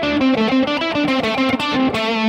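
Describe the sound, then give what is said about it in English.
A distorted electric guitar plays a run of short sliding notes from one fretboard position, the pitch gliding up and down between steady tones in a bright, buzzy, sustained line with no voices. “Little slides and things like that that I can do with this position that I couldn't when I was sitting here.”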